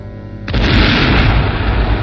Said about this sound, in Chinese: 夜里，一座铁路高架桥被炸毁了，这是谁干的呢？